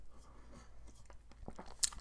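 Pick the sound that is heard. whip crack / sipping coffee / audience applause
sipping coffee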